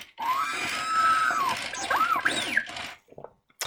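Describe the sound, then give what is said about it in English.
A toy R2-D2 droid from Star Wars chirps and whistles in a quick burst of warbling electronic beeps, with sliding pitches sweeping up and down, fairly loud and without any talking. “I'll get to tidbit of news in a second, water break, and some R2.”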